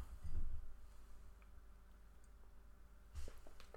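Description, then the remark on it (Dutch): Two quiet sips of tea from a cup, one near the start and one near the end, each a soft slurp with faint clicks of lips and swallowing, with no talking. “Ja, af en toe neem ik even een slokje thee.”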